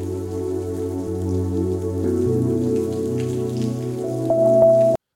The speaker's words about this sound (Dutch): Oh, excuus, ik doe, dacht, doe er even een lekker zendmuziekje bij. Maar dit klinkt meer als iemand die zit te pissen terwijl die orgel aan het spelen is.